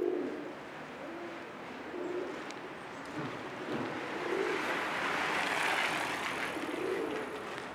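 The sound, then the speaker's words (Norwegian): A pigeon coos repeatedly in soft, low, rounded phrases at an unhurried pace as it walks among people from the Skien train, about a metre from their feet, over a steady wash of outdoor street and traffic noise. “Eh, og så går det da bare en due liksom, midt iblant oss, eh, bare en meter fra, fra, beina til alle, uten å bry seg og mining its own business.”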